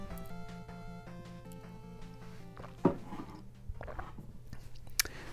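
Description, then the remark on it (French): Someone sips a drink, with soft wet mouth and swallowing noises, a sharp clunk partway through, and another click near the end, over a steady tonal hum. “Oh boy, je vais prendre une gorgée.”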